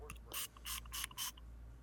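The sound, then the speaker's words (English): Four quick, crisp pumps of a Pure Body Extra spray bottle in a steady rhythm, each a short hissing burst of mist, fairly quiet against a low background hum. “I'm going to show you how simple this is. Four sprays.”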